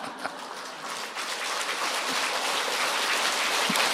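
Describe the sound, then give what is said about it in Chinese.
An audience claps in encouragement after a comedic story, a steady, dense wash of many hands that builds slightly and stays loud throughout, with no voices over it. “谢谢你们鼓励的掌声。”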